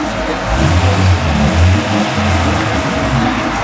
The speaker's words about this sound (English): We are in LA, we're a city with loud cars where you compensate for your dick.